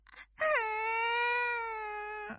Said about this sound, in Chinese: 鱼宝宝见大家都跑掉了，便伤心的哭起来。